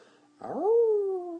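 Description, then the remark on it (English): A single voice imitates a wolf howl: a sustained, moderately loud tone that swoops up and then slowly sinks for about a second, following a brief low murmur. “So the wolf howl will sound something like this.”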